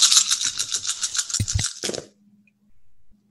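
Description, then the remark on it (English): Loud dice rattling in a hand for a couple of seconds, then a few sharp clacks as they tumble onto a hard surface, followed by quiet. “So that gives me two more dice.”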